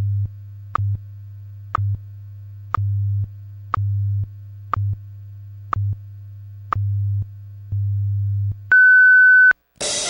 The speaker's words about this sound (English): At the tone, zero hours, zero minutes, Coordinated Universal Time.